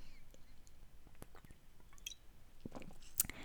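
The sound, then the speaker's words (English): Someone quietly sips a beer: soft wet lip smacks, small clicks and a gulp scattered over a few seconds, with no talking. “I'm drinking a beer right now”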